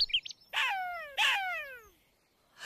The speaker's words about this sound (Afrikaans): Jakkals! sê die dogtertjie.